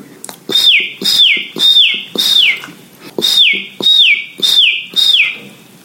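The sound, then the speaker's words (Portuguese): A chick peeps over and over, about eight shrill, downward-sliding cheeps in a steady, insistent rhythm, loud with no other sounds around them. “pintinho estava vindo correndo em direção a Dodô, que resmungou de novo e correu para o outro lado.”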